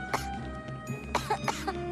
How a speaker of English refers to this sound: And Hikari's coughing, and nobody's noticing, not even Garumon.